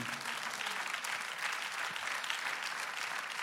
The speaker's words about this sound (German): Wie gut ist dieser Gott? Wie gut ist dieser Gott? Ja, lass uns ihm einen Applaus geben.